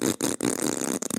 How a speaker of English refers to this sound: That was that was the sound of a fart.